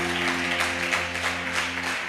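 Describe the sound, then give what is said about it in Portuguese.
An audience applauds in praise of the Lord in a dense wash of clapping, moderately loud and continuous, while a sustained low keyboard chord hums underneath throughout. “Em nome de Jesus, se você tomou posse se você tomou posse dessa declaração de fé, aplauda o nome do Senhor.”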